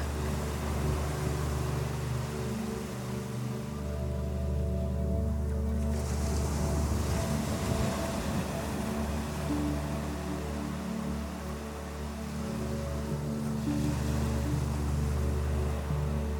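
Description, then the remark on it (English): Ocean waves surge in a steady, full wash of sound, swelling noticeably twice, with a low humming drone beneath and no voices. “In fact, we are meant to be immersed in this ocean.”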